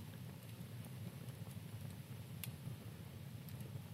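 A small fire in a back garden crackles steadily over a low, rushing hiss, with sharp pops breaking through every so often. The sound is continuous, with no voices.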